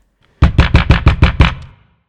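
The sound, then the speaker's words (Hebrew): Loud, rapid knocking on a door: seven sharp, evenly spaced raps in quick succession, then quiet. No voices. “יום אחד, בשעת הצהריים, בזמן שהמלך האזין לנגנים שלו כמו בכל יום, נשמעו פתאום דפיקות רמות ומהירות בדלת.”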